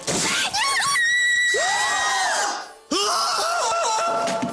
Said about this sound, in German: Zalando. Schrei vor Glück.